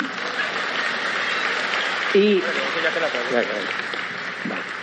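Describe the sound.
Steady audience applause, a dense wash of many hands clapping at an even loudness throughout, with a man's voice speaking briefly over it partway through.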